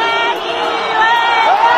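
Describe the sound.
A large stadium crowd of Verona supporters makes monkey-like "u u u" chanting noises at Balotelli when the ball reaches him, in an Italian league football match: a loud, continuous roar of many voices with rising hooting tones swelling through it.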